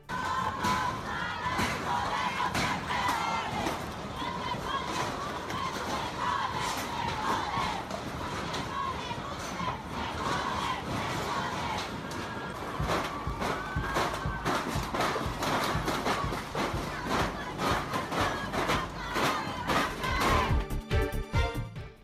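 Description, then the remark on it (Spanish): A large crowd of women chants loudly in unison at a street march against gender violence on Paseo de la Reforma, Mexico City, voices rising and falling in steady rhythmic slogans with scattered shouts and bursts of noise; some hooded protesters paint graffiti and break glass. “A pesar de las medidas tomadas por autoridades capitalinas, algunos contingentes de manifestantes encapuchadas realizaron pintas y rompieron vidrios a su paso sobre Paseo de la Reforma.”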